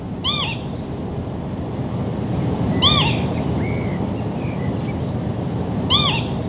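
A lapwing (peewit) gives a plaintive, slurred two-note 'peewit' call in flight, repeated three times at roughly three-second intervals, clear over a steady wash of wind or surf noise.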